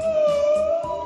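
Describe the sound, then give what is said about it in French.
A whale call: one sustained, moaning tonal cry that holds steady and then bends slightly in pitch, fairly loud, with no voices present. “Tu l'entends la baleine là, en train d'étouffer à cause de ton plastique”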